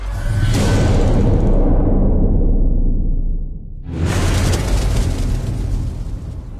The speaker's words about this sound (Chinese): 就在一片欢呼声中，我怎么好像听到了不远处传来了巨大的爆炸声？